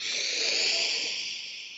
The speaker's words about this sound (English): So let's take a breath in through the nose